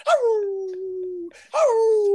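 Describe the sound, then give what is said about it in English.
A dog howls twice, loud, each long mournful cry starting high and sliding down into a sustained whining tone, with a brief pause between them. “You out there screaming only the dog at the door.”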